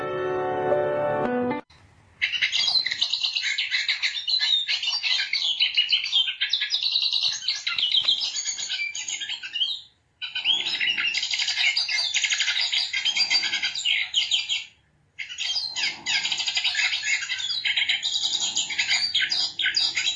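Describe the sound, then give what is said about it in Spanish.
A hooded siskin sings a long, rapid, twittering song, bright and continuous with two brief pauses, after a short tonal note at the very start; no voices. “escuchando el Cabecita Negra.”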